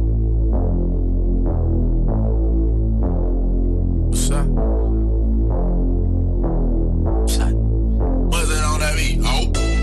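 A hip-hop instrumental intro built on a deep, throbbing bassline that pulses in a steady repeating pattern, with bright, noisy swishes bursting in now and then, densest toward the end. No vocals.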